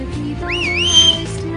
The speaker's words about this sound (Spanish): Eh, de hecho, les voy a pegar un silbido, voy a bajar porque sirvo bastante fuerte.